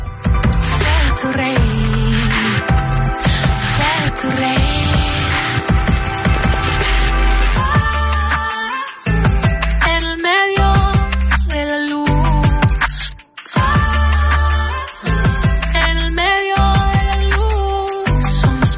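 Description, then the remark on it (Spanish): A loud, dense electronic pop track with layered synth tones and punchy, rhythmic beats that briefly cut out and return, playing on its own with no voices over it. “Yo no soy, usted sabe que yo no sé nada de música, así que usted me tiene que ir guiando en esto, pero em, harto, bueno, no, sé, como más, que instrumento, mucha electrónica se puede escuchar en el de fondo, ¿no?”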